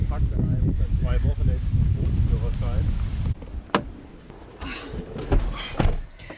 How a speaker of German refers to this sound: Der Wind nimmt zu. Es wird auch dunkler. Mal sehen, wie lange wir noch trocken bleiben. Uiuiuiui, ui, ui, jetzt wird's windig.